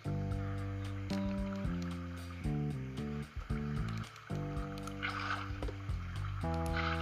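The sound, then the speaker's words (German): Video game water pours and flows in a steady hiss beneath loud sustained tonal music, swelling briefly into a brighter splashing rush near the end, as the player uses the water to push an iron golem into a corner. “ich treibe jetzt den Eisengolem mit meinem Wasser hier einfach dauerhaft in die Ecke.”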